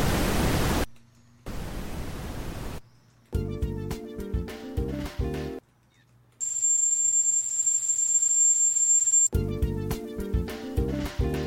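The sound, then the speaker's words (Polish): Short bursts of steady hissing white noise alternate with snippets of plinky synthesized chords; one longer stretch of noise carries a thin, high steady tone on top. No one speaks. “coś ala takie winylowe albo biały szum, waves, czyli takie standardowe fale.”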